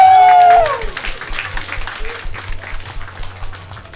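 An audience at a stage show breaks into steady, dense applause lasting several seconds, many hands clapping together, welcoming the next performer onto the stage. A brief sliding tonal sound plays at the very start before the clapping takes over.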